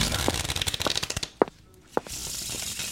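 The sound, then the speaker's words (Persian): A rapid, dense burst of crisp riffling as a deck of playing cards is shuffled by hand for over a second, followed by two sharp snaps of cards being squared, then a soft rustle; fairly loud, no talking. “یه دسته ورق رو برداشت. همینطور که داشت به سمت ما می اومد ورقها رو مثل یک جادوگر لای انگشت های کشیدهش به رقص در می آورد”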